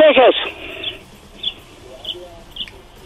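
Small birds chirp in a quiet, peaceful place over a low background hum: a louder burst of quick chirps at first, then a few faint, spaced-out tweets.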